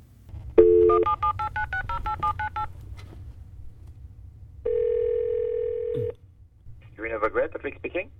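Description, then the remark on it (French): A rapid string of about ten telephone dialing tones beeps in quick succession, followed after a pause by a long steady tone, then a brief burst of voice, all over a low background hum. The call is from Canada Export about an audition for the TV show Dragon's Den. “J'appelle au sujet de votre audition pour euh, The Dragon's Den.”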